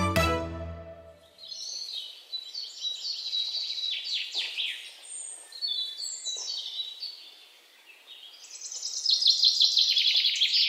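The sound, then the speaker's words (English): Several birds chirp and warble continuously outdoors in spring on a small farm near an apiary, their bright, busy calls overlapping at moderate volume, with a denser burst of song near the end. A brief low tone sounds at the very start. “The air is filled with the chirping of birds.”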